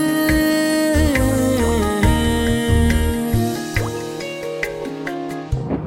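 Water drops drip in a steady, plinking pattern over a sustained musical backdrop with a soft pulsing beat, clear and close, with no voices.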